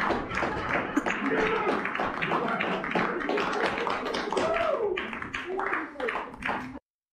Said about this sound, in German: Es ist einfach schon, aber man, man hört auch, man hört auch wieder, ich glaube, das ist der, der GM, wie er auf den Tisch klopft.